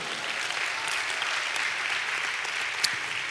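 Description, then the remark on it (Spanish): Sustained applause to God from an audience, a dense, steady wash of many hands clapping at even loudness throughout, with no voices rising above it. “Dale un aplauso a Dios por eso, hermano.”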